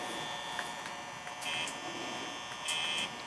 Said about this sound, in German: Immer wenn ihr dieses hört, dann mache ich das Licht an. Wie jetzt zum Beispiel.